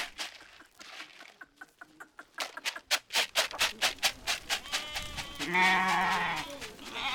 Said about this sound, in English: Suddenly, the goats are coming from everywhere, running through and around our legs. The farmer holding the bowl of corn sends us a proud look. He lured the goats here just to show them to us.